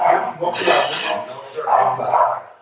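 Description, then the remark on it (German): A dog barks several times in short, uneven bursts, moderately loud, with faint household clatter in the background. “Der Hund wurde nicht, Entschuldigung, wenn ihr den Hund hört, der Hund, den haben wir nicht, äh, der bellt immer noch.”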